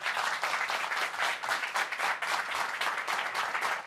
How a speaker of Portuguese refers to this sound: foi aplaudido